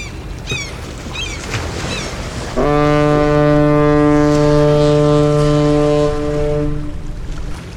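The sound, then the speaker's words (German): A cargo ship's horn sounds one long, deep, steady blast lasting about four seconds as a freighter arrives in harbor, preceded by gull-like cries and faint harbor ambience with a low rumble of water and wind. “Soeben ist der Prost-Punk-Frachter mit einer Ladung Post-Punk aus Hamburg eingetroffen.”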